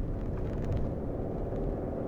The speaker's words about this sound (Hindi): आज मैं अपनी गाड़ी में गाड़ी चला रहा हूँ मेरे बाप की गाड़ी में गाड़ी चला रहा था मैं